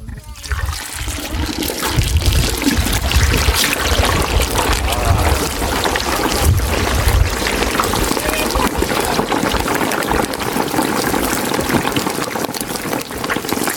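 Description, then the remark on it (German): Cooking oil, 39 litres this year, pours steadily in a loud, continuous stream, splashing and gurgling as it fills a container, with no pause for the whole stretch. “haben dieses Jahr 39 Liter Öl.”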